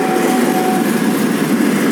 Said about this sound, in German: Und da wollte ich immer, oh, jetzt kommt ein Zug. Geil, Bahnübergang, kommt nie ein Zug, jetzt kommt einer. Es ist ein Güterzug.